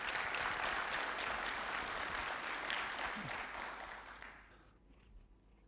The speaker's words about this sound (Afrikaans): Ons is dankbaar vir julle. Uh kom ons gee vir nog 'n lekker hande klap daar.